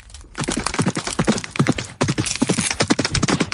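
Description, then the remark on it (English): A rapid flurry of heavy hoof stomps, a deer-woman's hooves crushing a man on the ground, the hard thudding impacts tumbling over one another in a loud, dense trampling with no voices. “The man was knocked to the ground, and with a few heavy stomps, he was crushed to death under the hooves of the deer lady.”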